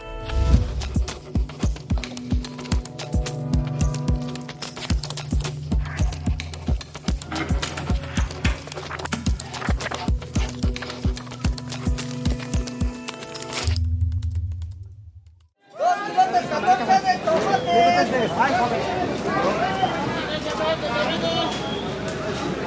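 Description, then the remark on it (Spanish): A rhythmic musical passage plays, breaks off into a brief silence, then a dense, loud bustle swells up at the Central de Abastos, the wholesale food market in Mexico City, with overlapping voices, clatter and general crowd noise. “La central de abastos de la Ciudad de México es un lugar hipnotizante.”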